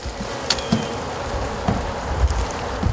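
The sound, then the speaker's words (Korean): A dense, steady drone of many honeybees swarming around their hives, about 70,000 bees tended by a beekeeper, filling the whole stretch at moderate volume, with a few soft knocks and taps breaking through. No one speaks. “약 7만 마리에 달하는 벌을 관리해야 하니 다른 데 신경을 쓸 수가 없어요.”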